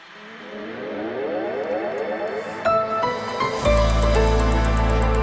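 A short electronic news-style jingle, the ARD Infonacht radio news opener: layered synth tones pulse and swell upward, then land on a loud, sustained bass-heavy chord that rings out to the end. No voices.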